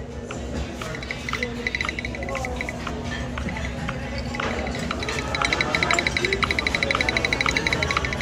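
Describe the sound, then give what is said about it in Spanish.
A text-scanning app's low-light warning: a rapid, steady series of short, high electronic beeps over a noisy background, becoming louder and more insistent toward the end. “Ese sonido es porque hay poca luz”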